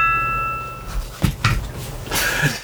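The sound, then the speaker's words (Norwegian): A bright electronic chime from a phone rings out once at the start and fades away within a second, followed by a few soft clunks and rustling handling noises. “Det var ikke miksebrettet, det var Egil som, eh, som, bestemte seg for at uh, han ville være med, han òg, så han brukte”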